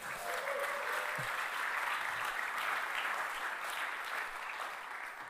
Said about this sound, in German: Danke, Band. Können wir der Band einen Applaus geben?